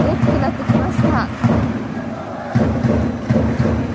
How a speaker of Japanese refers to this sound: さあ練習試合ですけれども応援は本番の試合のように声出し応援、力強いです